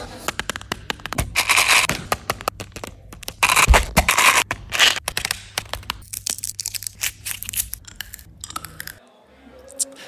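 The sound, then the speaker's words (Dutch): Crisp crackling and crunching ASMR sounds made with Mentos candy, like candy being bitten and chewed, in dense rapid bursts with sharp clicks and rustles, loud, tapering off near the end. “Nou, laten we even luisteren wat je kan doen met mentals en ASMR.”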